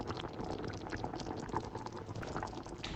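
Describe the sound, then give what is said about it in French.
Very hot water pours into a cooking pot holding oil, prunes, onions and garlic for a prune sauce. It makes a steady, bubbling, splashy rush that holds an even level for about three seconds, with no voices. “Je vais ajouter mes oignons, mon ail, ensuite de l'eau bien chaude.”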